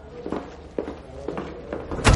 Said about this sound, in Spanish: En la oficina, Churchill y Anthony se detienen en un pasillo. Churchill cierra la puerta de una sala.